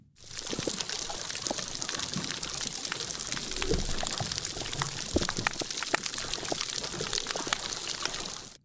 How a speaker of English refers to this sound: Well, to illustrate, let's first listen to what those degraded coral reefs sound like.